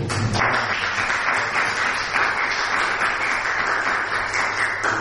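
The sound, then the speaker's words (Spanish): Steady audience applause at the close of a talk fills the whole stretch, a dense, even wash of many hands clapping at a constant loudness with no voices standing out. “Bueno, yo creo que te mereces un aplauso, que seamos pocos.”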